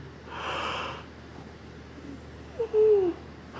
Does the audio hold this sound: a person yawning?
yes